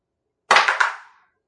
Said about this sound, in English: So roll the dice to uh, see your uh, jailer.